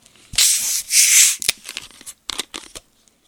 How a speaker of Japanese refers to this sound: ドンキホーテの強炭酸水レモンは、でっかい字で1秒でも長く刺激を楽しんでもらいたくて、ギリギリまでガスを入れた最強天然水みたいなことが書いてあって、今ここにあるんで飲んでみますね。